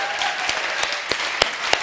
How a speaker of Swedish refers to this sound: Eh, lovsångsteamet, kan vi inte ge dem också en stor applåd?